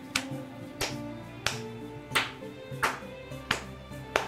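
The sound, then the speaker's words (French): Seven sharp claps from one person clapping with both hands, at a slow, even pace, each a crisp single smack, over a steady droning musical tone in the background. “Puis moi, je vais m'avancer avec la petite boîte sous le bras, mon tombe sur l'autre dans mes mains très serrées, je vais applaudir.”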